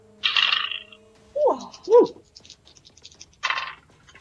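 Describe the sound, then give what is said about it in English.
Dice clatter across a tabletop in two separate rolls as players roll for initiative, each a quick loud rattle, with a couple of short vocal exclamations between them. “And I will want initiative rolls from everyone at this time.”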